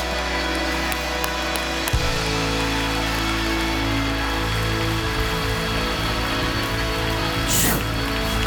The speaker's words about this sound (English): With your clap, let hell hear it. Let every devil hear it. Let rebellion hear it.